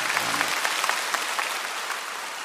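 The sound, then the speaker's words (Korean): An audience claps together in a dense, sustained burst of applause, many hands overlapping into a steady crackling wash with a few sharper claps standing out. No talk over it. “박수 한번 하십시오.”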